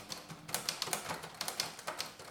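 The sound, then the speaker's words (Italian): Rapid, irregular plastic clicking from a brick-built drum mechanism in a building set, a dense run of sharp little clacks at a modest level, with no one talking. “Cioè a livello di rumore hanno fatto un capolavoro ed è fatto ovviamente tutto con l'ego.”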